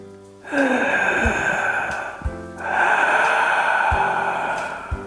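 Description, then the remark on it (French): Two long, loud, raspy breaths drawn through a tightened throat, one in and one out, a person imitating the mechanical hiss of Darth Vader's respirator. No talking. “Dark Vador, c'est parti.”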